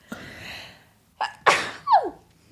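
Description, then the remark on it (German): A loud sneeze bursts out after a sharp intake of breath, followed by a quick trailing exhale and a short gasping sound as it fades. The sneeze is caused by a pollen allergy. “oh, ich muss niesen.”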